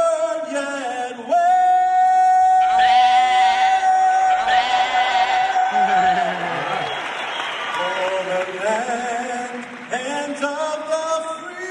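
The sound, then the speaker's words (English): A large crowd applauds and cheers while a solo singer holds a long, sustained high note of the US national anthem, The Star-Spangled Banner, then carries on with the melody as the applause keeps rumbling underneath. “because back in the day you could not applaud during the national anthem, right?”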